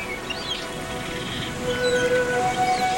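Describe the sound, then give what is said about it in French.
A steady rushing wash of ocean waves breaking against rocks, swelling slightly louder toward the end, with thin bird calls whistling faintly above the surf. “Seul, assis dans les rochers, les fesses un peu mouillées par les gouttes d'écume, il regarde l'horizon il ne peut lâcher des yeux cette minuscule ligne qui sépare au lointain l'immense mer et le gigantesque ciel.”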